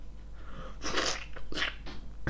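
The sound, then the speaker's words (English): A voice imitates a gory sound effect of men being stabbed in the stomach, with a few wet, crunching, breathy bursts, the longest near the middle and a short sharp one at the end, fairly loud. “Like they're just stabbing like men in the stomach, and you're like, uh, and it, it, plays all the noises and everything, like all the yeah, yeah.”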